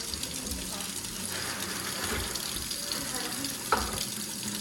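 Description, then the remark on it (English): Tap water runs steadily into a mug, a continuous splashing rush with a brief clink near the end and faint voices in the background. “I should have gotten like water ready for this, but.”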